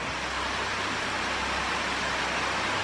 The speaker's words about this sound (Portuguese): Mas graças a esse trabalho, a água está fluindo, a vazão é bem maior do que tinha anteriormente e a água está indo. Só para vocês ouvirem um pouco do barulho né, da água que faz